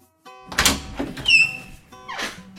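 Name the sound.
front door being opened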